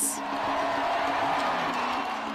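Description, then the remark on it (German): A crowd in Moutier cheering loudly and continuously over the vote result to join the canton of Jura, a dense wall of many voices shouting and whooping together at a steady, sustained level with no pauses. “Die anderen, die jubeln.”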